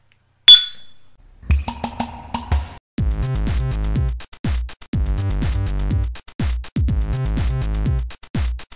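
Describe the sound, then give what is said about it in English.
A single bright clink of glasses raised in a toast rings out near the start, clear, before a rhythmic music track takes over for the rest. “Pour me another glass from Beer 52. Cheers. Cheers.”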